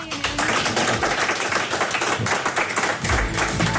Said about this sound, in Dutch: Een warm applaus.